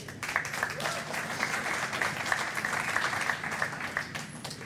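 An audience applauds steadily for several seconds, a dense wash of many hands clapping at once, fairly close and even in loudness throughout.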